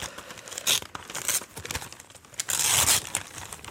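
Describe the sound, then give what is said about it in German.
Red Christmas gift wrapping paper around a home-burned CD or DVD is torn open in several sharp ripping bursts, with crinkling and rustling between them and a longer, louder tear near the end. No one speaks. “hübsch in eine rote Weihnachtsgeschenk, in einem Geschenkpapier verpackt, ja. Soll ich aufmachen?”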